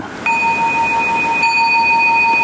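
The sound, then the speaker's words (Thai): A meditation bell rings with a clear, pure tone to mark the end of a sitting meditation, then is struck again about a second later, its steady ringing sustaining throughout with no voices. “เอาละขณะที่ท่านรู้ลมหายใจมีสมาธิอยู่เนี่ยท่านได้ยินเสียงระฆัง”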